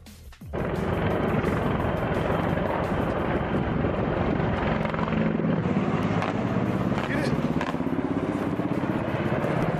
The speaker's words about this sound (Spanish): Este es el sonido de los misiles que solo asustaron la zona verde de Bagdad la zona murallada de la capital iraní, donde se encuentra la Embajada de Estados Unidos y el personal de inteligencia